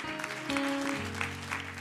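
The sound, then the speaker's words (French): A crowd applauds and cheers in a steady, dense wash of clapping, fairly loud, with a low sustained tone humming underneath throughout. “Ouais, ça mérite de l'acclamation.”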